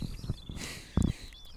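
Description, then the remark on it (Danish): Faint birdsong drifts in outdoors, thin repeated chirps and whistles running through the moment, with a few soft low thuds like steps or handling noise. “så ved jeg altså ikke, om I andre kan høre det her, men der er der er smæk på, på, på kvideren herude. Mm. Der er virkelig gang i den.”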